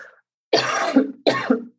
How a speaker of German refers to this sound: Husten.